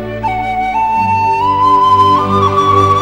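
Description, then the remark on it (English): A tin whistle plays a clear, bright melody, holding long notes and stepping upward with a slide near the end, over a steady low bass accompaniment. No voices. “Oh yeah, pin whistle.”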